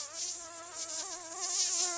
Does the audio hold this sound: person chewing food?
no